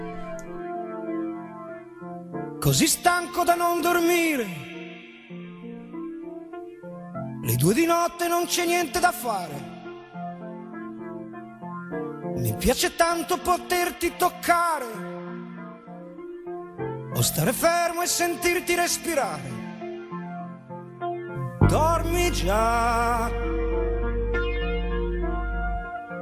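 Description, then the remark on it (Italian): A male singer delivers an Italian pop song in phrases over steady keyboard-led accompaniment, moderately loud, with a fuller, bass-heavy arrangement swelling in toward the end. “e, questo è il titolo appunto della canzone che, che, ascoltiamo.”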